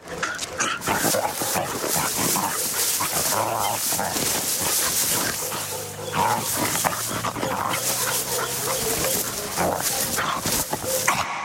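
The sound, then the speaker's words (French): Several Brazilian street dogs bark and whimper, with yips and whines overlapping continuously over a busy, noisy outdoor background. “On s'imagine aboyer, griffer le bitume, fouiller de la truffe de vieux détritus, ou s'abandonner à des ronflements paisibles allongés sous un soleil brûlant.”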